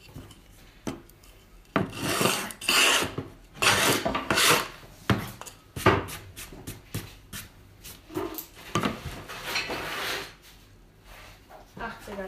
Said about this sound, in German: 80er Schleifpapier.